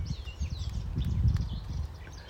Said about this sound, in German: Schau, die Vogeln, die sind ganz aufgeregt, weil du so gut rechnen kannst.